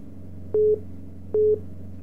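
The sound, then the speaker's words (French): A telephone busy signal beeps twice in a steady rhythm, each short tone followed by a pause, clear over a low background hum on the line. “Le téléphone dérange un peu.”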